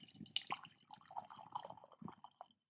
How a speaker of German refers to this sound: ich gieße es mal in eine Tasse um, weil ich nämlich nicht weiß, wie heiß die Brühe tatsächlich wird und die Dose ist so heiß, dass ich die eigentlich nicht an meinen Mund nehmen möchte.